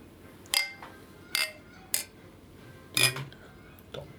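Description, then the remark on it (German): Glasses clink together in a toast, four or five bright ringing chinks spaced irregularly over a few seconds, fairly sharp, with faint background murmur between them. “Das sage ich mal Prost, wenn Prost. Ja, Leute zum Anstoßen.”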